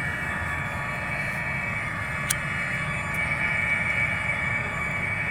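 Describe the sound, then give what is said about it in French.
A wind-blown harmonica sound installation sounds a steady, sustained chord of reedy mid-to-high tones over a continuous rumble of wind, with a couple of faint clicks partway through. “et euh, donc là, voilà, celui-là, donc ça, c'est avec des harmonicas.”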